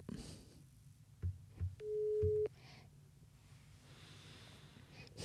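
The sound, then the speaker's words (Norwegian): A single steady electronic ringback tone sounds for about half a second while a man is being called on the phone, clear and prominent, with a few soft low thumps and breathy noises around it and no talking. “Vi skal jo ringe da CP.”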